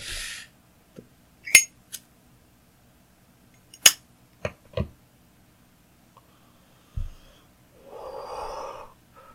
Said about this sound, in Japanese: オーダーシティで、あの、波形のモニタリングしてるんですけど、ジップを開けた瞬間すっげえ波形が乱れた。ごめんなさい、うるさかった。